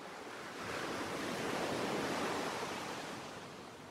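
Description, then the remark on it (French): Waves wash steadily onto a beach, a broad hissing surf that swells slightly and then eases, with no voices, just continuous seaside ambience. “On marche longtemps les pieds dans l'eau en slalomant entre les familles qui jouent aux raquettes ou chahutent entre les vagues.”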